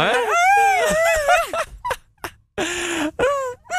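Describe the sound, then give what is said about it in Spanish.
A person imitates dogs, voicing a long wavering howl followed by short whiny yelps and a breathy, strained whimper, fairly loud with brief pauses between sounds. “¿Cómo le hacen los chuchos, …, cuando ya sienten que viene algo malo, un huracán? Empiezan a aullar”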